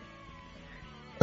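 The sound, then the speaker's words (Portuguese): A single short, sharp sneeze bursts out near the end after a stretch of quiet background hum, loud, with no talking. “Saúde.”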